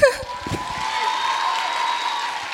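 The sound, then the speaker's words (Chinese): An audience breaks into steady, sustained applause to encourage a nervous first-time speaker on a show, a dense wash of clapping that holds at an even level throughout, following a brief moment of voice at the very start. “希望大家可以给我一点掌声鼓励。”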